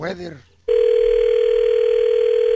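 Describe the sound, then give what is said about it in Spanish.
A brief bit of speech, then a telephone line tone comes in as a woman dials her husband on an outgoing call. The tone is a loud, steady, single-pitched hum held without a break to the end. “¿a, le él estás marcando a tu marido?”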